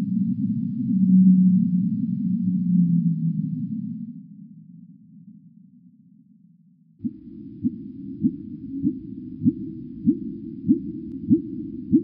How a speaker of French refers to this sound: Le petit rorqual émet différents types de sons et puis des sons un tout petit peu particuliers comme celui qu'on vient d'entendre.